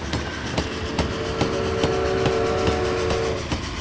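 A steam train rolls along the rails with a steady clickety-clack of wheels over the joints, while a sustained whistle-like tone sounds through the middle of the passage. No voices are heard.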